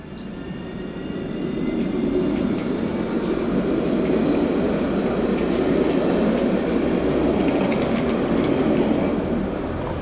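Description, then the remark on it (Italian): A train rumbles steadily along the rails, a dense low roar with faint rhythmic clatter and high metallic squeals, building in the first seconds and then holding loud throughout. “Ti ha partorito su un treno, tua madre. Un treno turbolento animo sovietico, inquieto, passionale, magnetico, rivoluzionario.”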